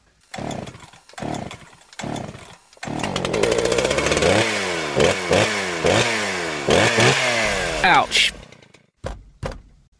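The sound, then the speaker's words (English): A small chainsaw sputters through a few short bursts, then catches and revs loudly up and down several times in a buzzing whine before cutting out. “Tom, uh, can you pass my mini chainsaw, please?”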